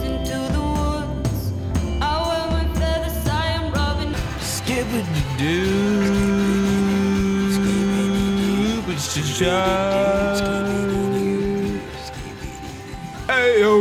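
A song by a Norwegian band from Trondheim plays steadily at full volume, with a voice singing long, held notes over dense instrumental backing that continues throughout.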